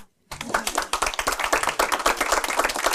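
An audience breaks into steady applause after a brief silence, many hands clapping densely and continuously at a moderate, even level for a few seconds, welcoming the chair of Radikal Ungdom, one of the youth organisation leaders present.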